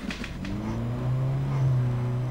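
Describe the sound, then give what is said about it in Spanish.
A car with a loud, open exhaust roars at full speed, its engine note climbing steadily as it accelerates hard past the listener, with no voices. “La idea me la dieron esos tipos que pasan a toda velocidad, fundando el culto al escape libre.”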